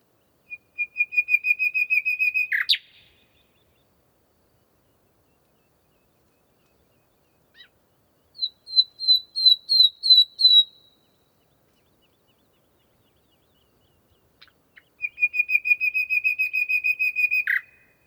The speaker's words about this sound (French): À la tombée du jour, rencontre avec maître Rossignol.